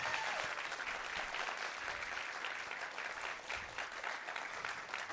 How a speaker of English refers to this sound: Come on, that deserves a better hand clap.